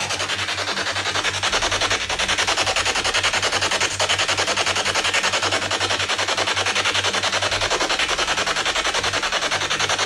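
Dense, continuous radio static from a spirit box used to search for ghosts, with rapid choppy fluctuations as it sweeps quickly through stations, loud and steady throughout with a low hum underneath and no clear speech.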